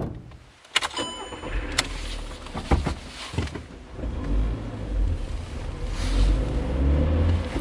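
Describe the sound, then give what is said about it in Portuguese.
A car engine starts with a few sharp clicks and clunks, then settles into a steady low rumble that builds as the vehicle pulls away and drives, with no voices. “Você pega o carro e vai para casa.”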